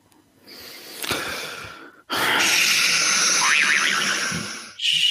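A quiz buzzer sounds during a Celtics basketball trivia quiz, a loud, harsh, sustained buzz lasting a couple of seconds, its pitch wavering slightly, after a softer breathy rush of noise; nobody speaks.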